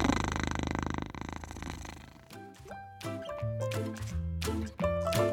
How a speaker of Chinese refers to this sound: 书店小猫一边兴奋地摇着尾巴，一边发出它史上最大的呼噜呼噜。